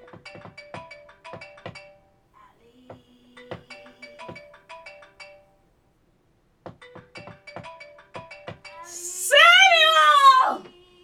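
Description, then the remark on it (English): A mobile phone ringtone plays a short melodic phrase in repeated bursts with brief pauses between them, followed near the end by a loud, high-pitched vocal shriek. “your phone was ringing, so I just figured you'd want to pick it up.”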